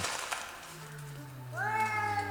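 animal, cats yowling

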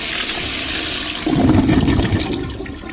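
household object, toilet flush

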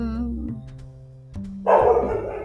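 animal, dog barking

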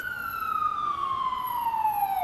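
vehicle, ambulance siren

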